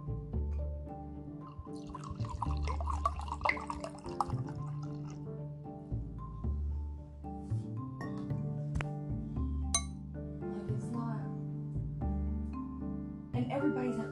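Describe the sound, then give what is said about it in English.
A drink is poured, with liquid splashing and dripping and a few sharp glass clinks, while muffled voices and a low hum carry on underneath. “Here, I want to see if I can catch them like pouring the one, like a good one this day.”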